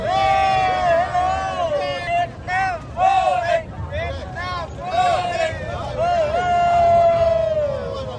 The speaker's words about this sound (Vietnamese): Vậy thì hôm nay mặc dù trời mưa nhưng bây giờ đã rất đông thế này thì chắc chắn rằng là các cổ động viên Việt Nam sẽ hết mình để cổ vũ